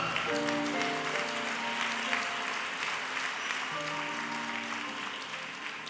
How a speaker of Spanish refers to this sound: Eres en el nombre, recíbelo, denle un aplauso a Jesús por este milagro. Dale gracias.